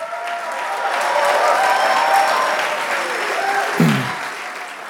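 An audience applauds steadily for their pastor and his wife, who will lead a new church site in Erlangen, a dense wash of many hands clapping that swells slightly in the middle and carries on without pause, with a brief low thump near the end.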